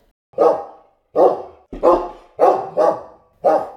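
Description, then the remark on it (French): A dog, Socrate, barks six times in quick, slightly uneven succession, each bark loud and sharp, with brief silences between them and no voices. “Non, moi, je suis un chien. Un toutou, un clébard, un corneau, quoi.”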